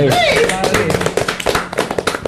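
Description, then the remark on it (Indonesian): A brief burst of hand clapping from a few people welcoming guests from Green Turtle Jampang, with sharp irregular claps spread over about two seconds, while voices chatter and call out underneath. “Tepuk tangan dong guys.”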